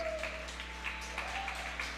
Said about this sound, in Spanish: Vamos a darle otro fuerte aplauso a nuestro Dios.